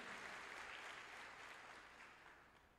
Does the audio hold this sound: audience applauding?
yes